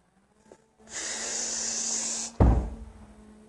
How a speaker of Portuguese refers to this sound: Quando eles abriram a porta do castelo, deu uma batida.